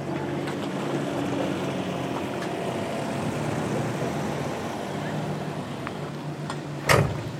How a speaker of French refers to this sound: Ça presque l'air facile de faire un créneau avec un si gros tracteur.